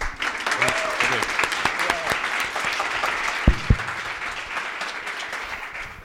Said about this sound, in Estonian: nii et tehke neile palun üks suur aplaus.